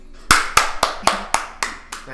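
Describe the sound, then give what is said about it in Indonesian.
Seven sharp hand claps in a steady, fairly quick rhythm, each a crisp bright smack with a short tail, evenly spaced across about two seconds. “tak edit ada tepuk tangan”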